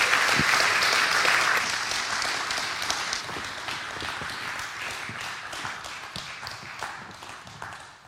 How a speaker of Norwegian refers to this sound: Takk skal dere ha. Dere kan klappe for disse damene.